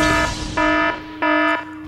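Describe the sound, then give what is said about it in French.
An electronic alarm sound effect from GarageBand blares in loud, repeating pulses of a harsh buzzing tone, cycling on and off about every half second, with no voices present. “Voilà, maintenant il y a une alarme et tout, c'est super high-tech.”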